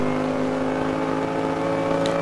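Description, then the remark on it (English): The number two race car of Fabian Schiller holds a steady, loud high-pitched roar as it climbs uphill to the highest point of the circuit through Bergwerk, the sustained harmonic whine dominating throughout with no voices present. “Uphill now for the number two car of Fabian Schiller then.”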